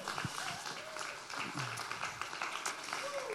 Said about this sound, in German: Und ich würde sagen, wir können mal allen ähm, Dekorationsteamlern und auch Bauteamlern einen riesen Applaus geben, dass sie sich die Mühe gemacht haben. yes, ihr dürft gerne klatschen.